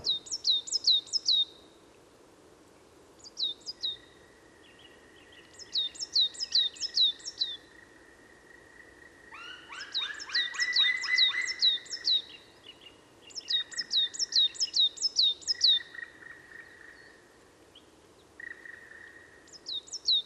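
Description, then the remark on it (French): Bright, high-pitched song of a coal tit, resembling a great tit's song but more sparkling and finer, with quick repeated chirping phrases in bursts, over a steady, thin trilling hum and a low background murmur. No one speaks. “Elle a un chant qui ressemble beaucoup à celui de la maison charbonnière, mais il est plus pétillant, plus fin,”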